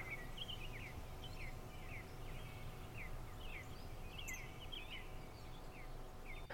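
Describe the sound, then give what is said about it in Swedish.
Several birds chirp and warble repeatedly, their short calls scattered across a steady outdoor background hum with no voices present. “Och fåglarna ger mig verkligen glädje.”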